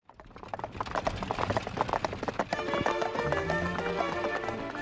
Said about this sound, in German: An einem heißen Tag im Juli 1777 ziehen galoppierende Pferde eine Postkutsche mit Reisenden von Berlin Richtung Ostpreußen. Ziel ist die Stadt Königsberg, genauer gesagt deren Universität.